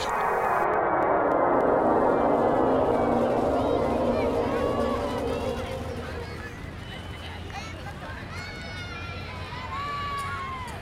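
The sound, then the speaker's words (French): A busy street crowd in New Delhi, in 37-degree heat, fills the air with constant, overlapping babble of many voices, loud and dense at first, then slightly quieter, with occasional higher calls and shouts rising above the din. “Cette foule, c'est cool.”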